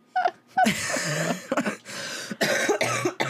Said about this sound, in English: Don't make me laugh too much. It makes me cough.